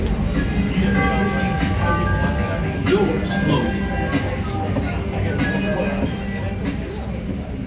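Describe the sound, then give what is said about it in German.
Steady rumbling interior of a moving commuter train carriage in Chicago, travelling about an hour from the Oak Park neighbourhood toward the city centre, with a constant low drone, rattling, and faint high tonal whines drifting in and out; no clear voices stand out. “Die Strecke führt uns etwa eine Stunde lang vom Stadtteil Oak Park, wo unser Airbnb liegt, in Richtung Zentrum.”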